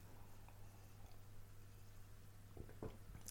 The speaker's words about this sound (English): I pause to drink.